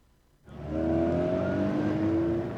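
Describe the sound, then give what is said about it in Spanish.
A car engine starts up abruptly and revs loudly, its rising harmonic whine sustained for a couple of seconds, with no voices; a traffic sound effect for traffic in the city of Manizales, Colombia. “El tráfico a esta hora en la capital caldense, en la ciudad de Manizales.”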